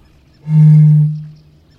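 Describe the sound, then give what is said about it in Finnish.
A single deep, hollow boom from a Eurasian bittern, like a low foghorn blown across a bottle, swelling quickly, holding for about a second, then fading out in otherwise quiet surroundings. “Kaulushaikaran kumea, sumutorvinen puhallus.”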